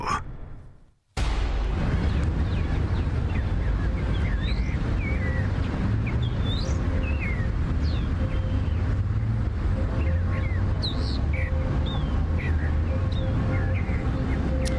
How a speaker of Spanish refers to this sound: Bueno, esto que estamos escuchando es eh, Madrid en cuarentena. Se oyen hasta pajaritos por ahí.